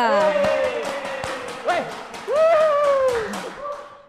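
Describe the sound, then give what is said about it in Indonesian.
An audience at a stand-up comedy show claps in a steady stream of sharp, overlapping hand claps for about four seconds, with rising and falling voices whooping and calling over the applause. “Uh, tepuk tangan dulu dong buat stand up bola raga.”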